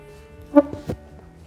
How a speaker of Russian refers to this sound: Слышали, как скрипнул стол? Это не от меня.